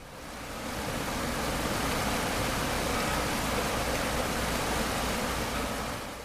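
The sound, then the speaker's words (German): Steady rushing of the Ohm river flowing under a bridge at Nieder-Ohmen in the Vogelsberg, Germany, a broad continuous wash of noise holding even from start to finish, moderately loud, with no voices. “Eine schöne Vorstellung, dass das Wasser unter mir noch am Kölner Dom vorbeifließen wird.”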